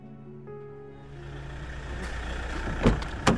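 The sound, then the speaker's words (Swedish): A car interior on a drive back to Hermanstorp, with a steady low engine rumble and road noise that swells slightly, plus two sharp thumps or clicks near the end; the sound is continuous, with no voices. “sitter i bilen på väg tillbaka till Hermanstorp.”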